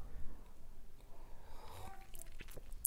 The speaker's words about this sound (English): Now, let me take a sip of my coffee because I've been talking a lot.